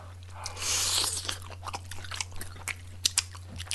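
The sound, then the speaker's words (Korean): Someone chews and crunches food that was heated in a microwave for 1 minute 30 seconds, tasting it: a run of crisp, irregular bites and crackles, fairly loud, with no talking over it and a steady low hum underneath. “나도, 나도 맛을 못 봤네. 한번 맛을 볼까?”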